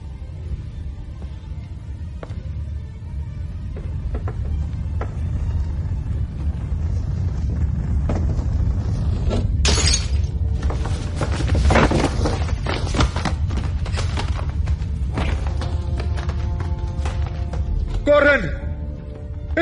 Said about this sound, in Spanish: cuando Robin Williams, mierda, agarra el, tablero y se va corriendo cuando viene la estampida, que rompe la librería, así, la biblioteca.